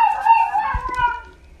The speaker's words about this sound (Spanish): Ay, el perro.